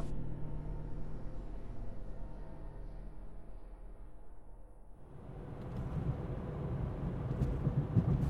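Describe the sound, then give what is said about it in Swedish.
A white limousine with tinted windows drives through Tierp carrying passengers to a manor house, with a steady low engine rumble that thickens and grows louder partway through as road noise and a deeper hum swell, with no voices present. “satt i bilen som skulle ta dem till herrgården. Det var en vit limousin och folket i Tierp tittade förbrillat på dem försökte se in i de tonade rutorna för att se om det kanske var en kändis där.”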